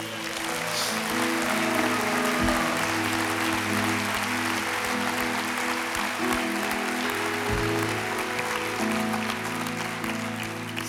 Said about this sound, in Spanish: ¿Cuánto le pueden dar un aplauso a Dios?